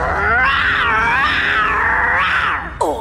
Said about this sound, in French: tu miaules Recommence, c'est mignon.